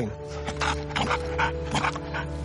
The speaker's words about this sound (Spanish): Se pone tan emocionado que no puede ni ladrar, hace un ruido con la garganta.